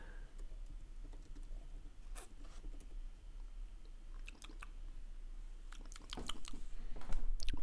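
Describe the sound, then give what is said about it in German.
Wet lip smacking while tasting whisky, a series of soft sticky clicks that come sporadically at first, then cluster more densely and slightly louder toward the end, with no talking. “Bei so einer bei Wein- oder Whisky-Verkostung muss man schmatzen.”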